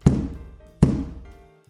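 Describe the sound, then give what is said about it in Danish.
Two heavy wooden thuds as a guard strikes a large staff hard against the floor twice, spaced under a second apart, each with a short resonant ring that fades. No voices. “Og med det samme så banker vagten med en stor stav ned i gulvet to gange meget hårdt og åbner døren til gildesalen.”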